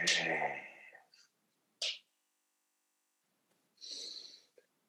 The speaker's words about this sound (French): Fait ça, c'est la première technique de respiration que je me suis mis à faire pour la faire volontairement par le nez.